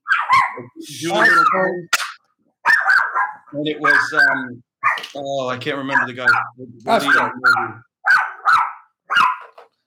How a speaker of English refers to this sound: That's a dog barking. Somebody's walking in front of the.